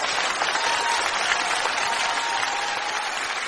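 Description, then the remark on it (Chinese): Sustained audience applause, a dense, steady wash of many hands clapping at an even loudness throughout, with no pauses and no talking over it. “掌声没停”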